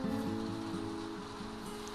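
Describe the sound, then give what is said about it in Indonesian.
Light rain with wind at night, hitting glass, makes a soft, steady hiss that holds evenly throughout, with a low rumbling undertone and no voices. “Malam ini, rintik hujan datang dengan membawa angin yang mengiringinya.”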